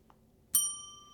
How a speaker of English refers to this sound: A bell over the door chimed as Serena walked into the small shop. The proprietor looked up when he heard the chime and smiled.